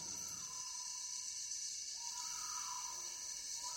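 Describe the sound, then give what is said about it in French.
A tree hyrax calls in drawn-out, wavering tones in a tropical night forest at Dzanga-Sangha in the south of the Central African Republic, recorded in 1994, while a dense, steady chorus of insects shrills continuously over everything. “Le chant des insectes, le chant d'un mammifère, le damant des arbres.”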